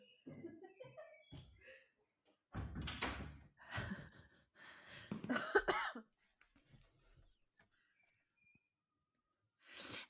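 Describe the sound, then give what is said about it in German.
A door is opened at about 22:04 in the evening to let a cat out for a walk, and later shut again, giving a few rattling clunks and scuffling bursts, with a cough-like sound mixed in and quiet gaps between. “bringt das Tier zur Tür.”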